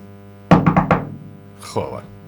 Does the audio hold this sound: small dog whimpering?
no